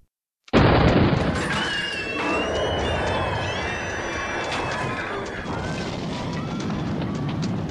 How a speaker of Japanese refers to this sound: ああもう大騒ぎだなこりゃどう収集つけりゃいいんだよ爆発はてめえの仕業か